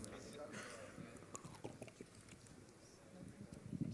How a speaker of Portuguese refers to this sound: Tomei água na boca da garrafa.